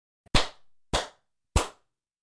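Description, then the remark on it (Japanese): Three sharp hand claps, evenly spaced about half a second apart, each followed by a short lingering reverberant tail, made as an acoustic test at home before a futon was added as sound-absorbing material. No voices, just the claps and their ringing decay. “このパンパンパンって叩いた後のね、この余韻具合がね、やっぱ違うんですよね。”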